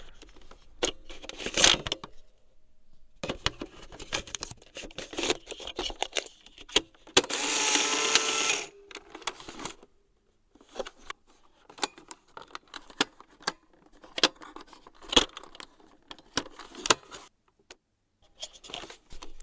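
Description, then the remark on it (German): Film being loaded into an analog camera: scattered mechanical clicks, snaps and light scraping, with one longer rasping, ratcheting burst midway. No one speaks. “Ich habe einen analogen Film in die Kamera gelegt, in die analoge Kamera.”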